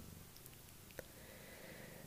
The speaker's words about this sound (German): nicht wundern, ich hoffe, ihr hört im Hintergrund nicht ähm, meinen Kater schnurren. Der hat sich nämlich gerade zu, zu mir gesetzt und ähm, will gestreichelt werden.